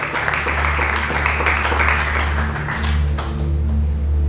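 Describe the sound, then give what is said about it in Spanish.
A church audience applauding God steadily for several seconds, a dense wash of many hands clapping at once over a low sustained hum, with no one speaking. “Y le dan un fuerte aplauso al Dios que tiene sus kairos, su tiempo justo”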